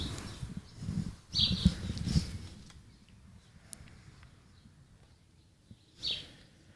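A few short bird chirps ring out in a garden, scattered, over a low rumbling background of wind or traffic. No one speaks.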